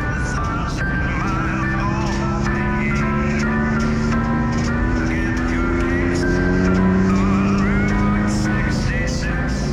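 A lime green Cadillac carrying a singer speeds along Route 66 in California at 7 a.m. on 19 November 1954, just after sunrise. Its engine is a loud, steady drone that slowly climbs in pitch, with a constant rush of road and wind noise throughout.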